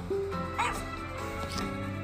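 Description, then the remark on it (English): A brief, bright dog bark from the video game Pet Party rings out over a steady electronic music backdrop, followed by a fainter yip, both fairly loud. “I don't have a dog, but this is the sound from the game, okay?”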